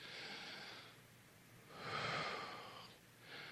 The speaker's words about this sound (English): I want you to do this with me. Breathe. One more time, just take a deep breath.